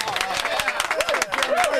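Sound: round of applause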